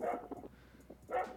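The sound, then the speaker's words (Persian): A dog barks twice, about a second apart, with a few fainter yips in between, heard in the background of a house's hidden camera footage. There is no talking. “سگ جانم تو پس زمینه صداشو میشنوین واق واقش در اومده”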